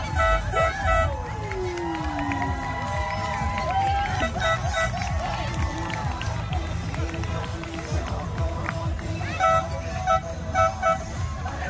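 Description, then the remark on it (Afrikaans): A homemade horn, sounding like the horns of fishing boats coming into Cape Town, blares a long, droning foghorn-like tone that wavers and slides in pitch, sounding over a busy background of crowd noise and chatter. “Dis die vishoeters in die in die Kaap, die skepe wat so inkom.”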